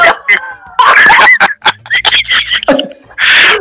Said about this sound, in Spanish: Estos son los, los, perros autóctonos, estos no los traje, ah. estos son míos. Estos no, los traje de ningún lado.